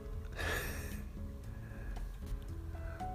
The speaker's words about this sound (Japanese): 今日は職場で収録をしてみていますちょっと職場のなんか換気システムいや換気システムなのかなんか常に稼働してる機械っぽい音が入るのはご容赦ください